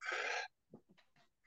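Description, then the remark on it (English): A single loud sneeze bursts out as a harsh blast of breath, followed by a few quieter sniffs and breathy noises. “Bless you.”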